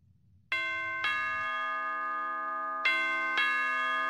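A doorbell chimes twice in a row, each a clear two-note ding-dong with long ringing tones that overlap and sustain, fairly loud with no voices.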